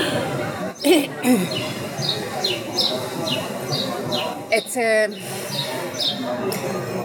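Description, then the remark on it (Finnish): A bird calls repeatedly and loudly, its sharp chirps recurring at a steady pace while a person talks over it. “Mä siirryn tähän, siirryn vähän tähän mikrofonin kautta, lintu huutaa tällainen niin paljon.”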